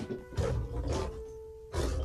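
A lion in a library, having put down a basket, roars in three loud, rough bursts, with brief pauses between them and a steady low hum carrying through the gaps.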